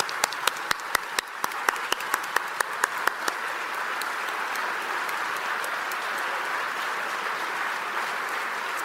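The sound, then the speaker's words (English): An audience at an evening event breaks into applause for the current Radio 1 employees, who have been asked to stand, with a few sharp individual claps at the start that quickly blend into a steady, dense wash of clapping that holds at an even level throughout. “And give everybody a round of applause.”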